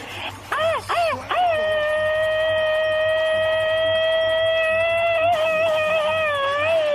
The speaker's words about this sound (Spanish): mándales un grito ametralladora, criatura.